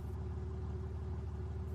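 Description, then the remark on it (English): A Bentley car engine idles steadily, a low, even rumble with a faint constant hum and no change in pitch or volume. Nobody speaks. “It was a Bentley. With the engine running.”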